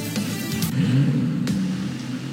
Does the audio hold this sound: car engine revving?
yes